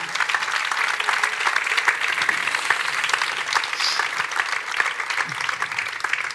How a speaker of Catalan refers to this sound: Dir també que l'acompanyament musical ha estat possible gràcies a alguns membres de la colla de grallers dels Mercets. Un fort aplaudiment també per ells, sisplau.